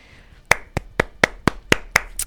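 A short burst of applause: about eight sharp, bright hand claps in a steady, even rhythm, like one person clapping alone, with no voices.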